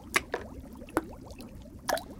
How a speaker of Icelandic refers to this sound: Ferðalangurinn tók til naglana og sett í potin.